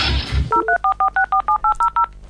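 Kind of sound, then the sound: signal or alarm, telephone keypad dialing tones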